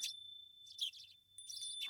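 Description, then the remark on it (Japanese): A wind chime rings softly with a steady, high, sustained tone, punctuated by a few light metallic tinkles. It sounds faint and delicate, with no voices present. “風鈴の音を聞きながら”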